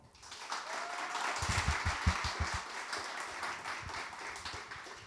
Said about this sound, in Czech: Přivítejte prosím vaším masivním, bouřlivým a vřelým potleskem majitelku PR agentury